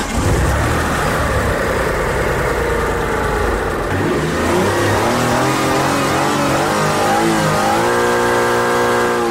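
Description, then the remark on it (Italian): A car exhaust roars loudly as the driver presses the gas pedal, engine pitch climbing and falling through several revs, then settling into a steadier rising drone. Continuous, with no voices. “perché si sente da, da come schiaccia il pedale del gas.”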